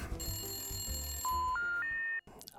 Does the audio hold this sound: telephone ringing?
yes